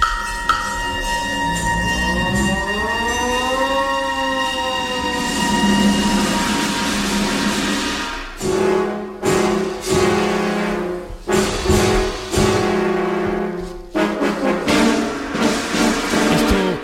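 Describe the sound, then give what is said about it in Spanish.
A siren wails in a slow rising and falling glide over a dense orchestral texture, then the orchestra takes over with loud, jagged chords and abrupt accented blasts. “Fíjate que ha sonado otra vez una, una sirena”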